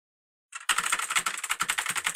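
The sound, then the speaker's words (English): Rapid, continuous clacking of computer keyboard keys, with the R key pressed over and over while playing League of Legends, fairly loud, with no voices. “I'm pressing R. Did my move happen yet?”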